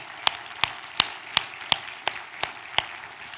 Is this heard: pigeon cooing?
no